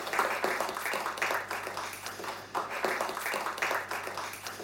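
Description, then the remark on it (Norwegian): An audience at an evening book talk gives warm applause to welcome the author: many hands clapping in a dense, steady crackle that holds evenly for several seconds, with no one speaking over it. “Gi Alf Kjetil en varm applaus.”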